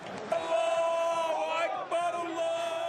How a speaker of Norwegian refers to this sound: Allah er stor, ropte Sahnin-supporterne da de ankom kamp mot Beitar sist helg. Stemningen var amper.